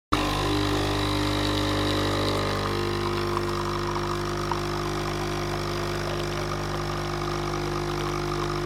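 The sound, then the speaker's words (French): An espresso machine kicks on abruptly and brews with a steady, loud mechanical buzz and hum from its pump, droning continuously for several seconds with no voices. “on va parler du bruit que produisent les machines à expresso”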